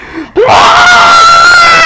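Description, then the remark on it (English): A voice imitates a young boy screaming after he has been sick: a short breathy intake, then one loud, sustained high-pitched wail that holds steady for over a second and a half, strained. “He starts screaming”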